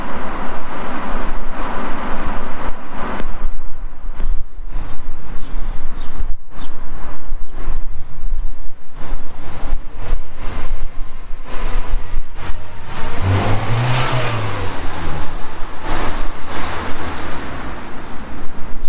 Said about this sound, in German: Ein schwarzer Golf fährt vorbei, er schaut sich ein bisschen herum und plötzlich gibt es einen Knall.